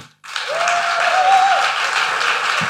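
Steady, dense applause from an audience fills the whole stretch after a brief silent start, a loud continuous wash of clapping with a faint whistle-like tone rising briefly through it.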